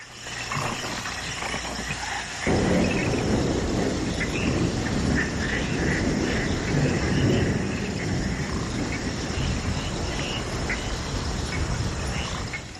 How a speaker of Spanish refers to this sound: Finales de los 70, llueve en el corazón de la selva salvadoreña.